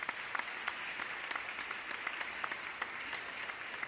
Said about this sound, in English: Give, you better give him a round of applause